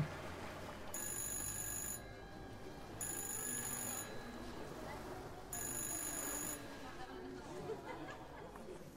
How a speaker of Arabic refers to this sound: وطول الوقت ده التليفون لسه بيرن